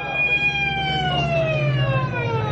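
vehicle, ambulance siren approaching

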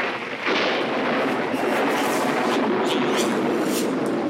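sound effect, lightning strike thunder crack

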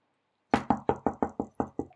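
impact, knocking on a door

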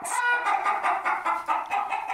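bird, chicken clucking

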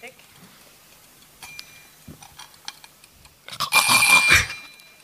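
signal or alarm, alarm clock ringing

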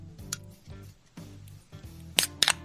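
food or drink, beer can being opened

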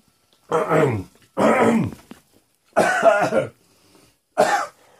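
human body sound, coughing

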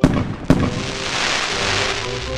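sound effect, fireworks exploding

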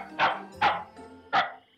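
animal, dog barking

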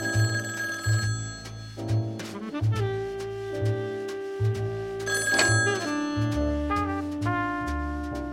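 household object, telephone ringing

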